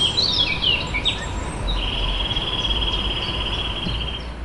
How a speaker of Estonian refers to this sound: akendest paistab kunagine kaitsevall, millel õitsevad lilled ja pargis laulavad linnud.